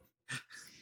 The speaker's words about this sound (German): Gesundheit.